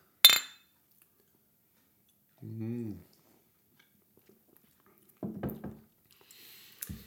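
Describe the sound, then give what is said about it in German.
Glasses clink together once in a bright toast, followed by quiet pauses, a few short murmured voices, and a faint fizzing hiss near the end. “Apropos, Prost. Ja, zischen wir uns mal ein.”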